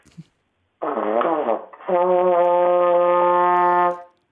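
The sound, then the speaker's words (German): A trombone plays alone: a short wavering, bending blast, then a long, steady, loud sustained note in sixth slide position, held for about two seconds before stopping. “Also ich spiele jetzt mal den sechsten Zug.”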